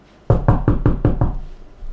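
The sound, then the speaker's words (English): Six quick, firm knocks on a wooden door in an even rhythm, fairly loud, followed by a short quiet tail with no talking. “If somebody knocks at the door, you go towards the door.”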